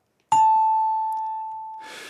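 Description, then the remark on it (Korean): A bright, bell-like ding-dong-dang correct-answer chime strikes once, clear, ringing out in a long sustained tone that slowly fades before a brief burst of rustling noise at the end. “내가 손동훈 인디의 딩동댕을 받을 상인가?”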